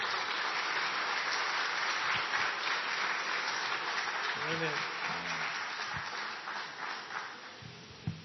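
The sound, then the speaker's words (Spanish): A crowd claps steadily in a dense, sustained wash of applause welcoming a pastor, with brief voices rising over it midway before the clapping begins to thin out toward the end. “Y pase, por favor, dale un fuerte aplauso y bienvenido al pastor.”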